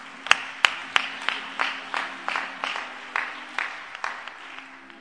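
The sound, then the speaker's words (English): An audience at a morning church service claps together for God in a steady, even rhythm, about fifteen sharp claps over five seconds, with a low constant hum underneath and no talking. “Let's give him a big hand clap this morning.”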